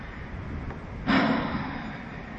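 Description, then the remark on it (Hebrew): A single deep breath taken during a yoga class, heard as an airy, breathy rush that begins abruptly partway through and slowly tapers off over a low steady background hush. No one speaks. “עוד נשימה אחת.”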